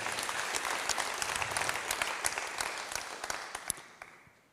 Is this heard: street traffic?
no